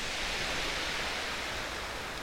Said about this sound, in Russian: Как он шелестит, вы слышите? Вы слышите эти камешки, эти волны?